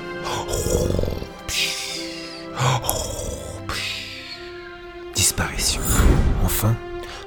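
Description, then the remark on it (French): A voice imitates trolls snoring and grunting: a loud run of deep, rasping snorts and throaty groans in uneven bursts, with no words spoken. “Une poignée de sable magique sur des trolls qui s'effondrèrent sur le sol en ronflant.”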